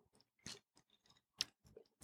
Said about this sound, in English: Take a sip. Take sip. Sip it.